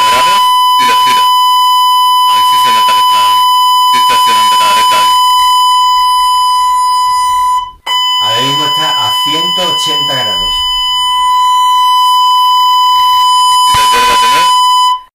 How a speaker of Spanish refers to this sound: Vale, ya he terminado con esto, voy a poner el sonido, la fuente de audio de poner un tono de un kilohercio a cero dB.